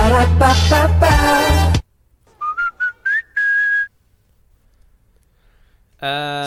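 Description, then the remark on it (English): A loud, brassy classic version of the short jingle sting from the end of McDonald's commercials, then after a pause the modern whistled rendition: a few quick staccato notes and a final held, rising note. “It is the sting okay. from the end of McDonald's commercials.”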